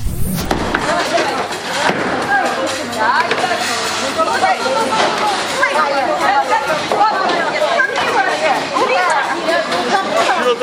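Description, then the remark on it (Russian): Excited crowd hubbub fills the bowling lanes during a game played in teams of five on three lanes, many overlapping voices chattering and calling out at once in a steady, loud babble with occasional sharp clattering knocks, no single speaker standing out. “Послушайте, какой ажиотаж творится возле дорожек.”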